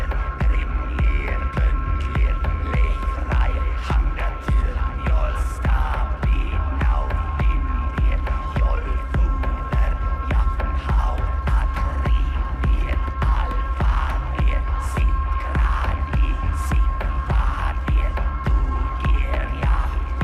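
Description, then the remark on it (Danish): Deep, droning throat singing with steady ringing overtones above a heavy, pulsing low rumble, holding a continuous, loud and intense texture for the whole stretch, with no talking. “Og sådan den her strobesang, den går altså direkte ned i, i mellemgulvet på en, ikke?”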